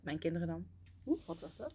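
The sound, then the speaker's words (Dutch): A cat gives a short, breathy hiss that continues softly under the talk as a woman speaks before and after, sounding surprised. “Oh, dat was de kat ook.”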